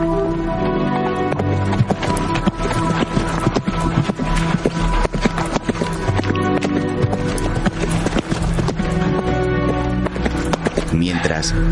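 A slender black horse trots steadily, its hooves beating a brisk, even clip-clop that continues throughout, layered over a sustained tonal backdrop.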